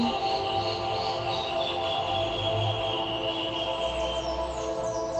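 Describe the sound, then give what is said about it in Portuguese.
A steady outdoor ambience with birds singing and chirping, a few brighter calls rising near the end over a constant low background hum. “De vez em quando passam os carros, mas se a gente isolar esse barulho e ficar só com o barulho dos pássaros, fica lindo.”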